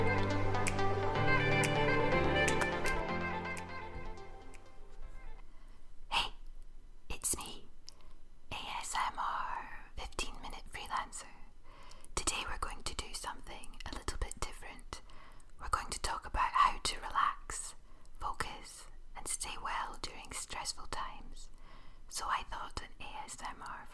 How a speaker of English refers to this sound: Can you hear that? I'm just kidding. I'm not going to whisper for 15 minutes, don't worry. if you know, you know. if you don't know what ASMR is, I'm going to let you Google that